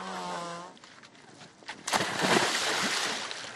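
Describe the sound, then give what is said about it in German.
A burst of splashing water as a woman plunges into icy water of one to two degrees, among ice floes, followed by a few seconds of sloshing and churning water. A voice is briefly heard at the start before the splash. “ist die Erste, die ins Wasser springt.”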